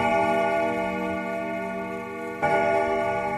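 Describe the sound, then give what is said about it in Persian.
A wall clock, the only working one of about 20 clocks hung on a wall in a home, ticks steadily at around 7:40 against a sustained resonant ringing tone that briefly swells again near the end. No one speaks. “گفت اه صدای چی بود الان میریم میبینی گفتم بهت که 20 تا ساعت و یه جا زده به یه دیوار تازه از بین همه این ساعت فقط یکیش کار میکنه که اینم صدای همونه”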